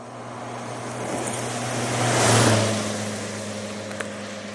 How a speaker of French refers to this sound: Et ça, c'est le passage d'une voiture en stéréo.